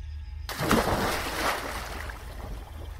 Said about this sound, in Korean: 큰 소리가 나며 용수로로부터 커다란 물보라가 올랐다.